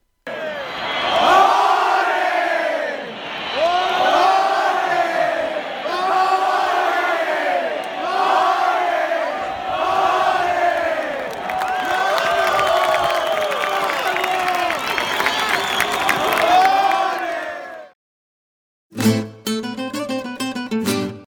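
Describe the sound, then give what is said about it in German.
A large crowd chants olé in loud, repeated rising-and-falling swells, joined by clapping and cheering as it builds, then a brief pause before a short burst of music. “Ole! Lasst uns hören, wie es gesagt wird.”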